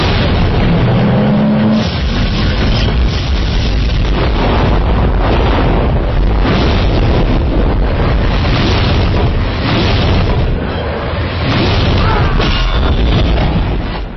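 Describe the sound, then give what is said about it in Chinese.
A thunderclap sound effect: loud, continuous rumbling with repeated crashing bursts, rolling on for about fourteen seconds without any talking. “雷雷公，为为什么为什么老给我我我要打死你！”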